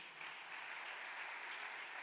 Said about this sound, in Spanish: ¿Cuánto le dan el aplauso fuerte a papá?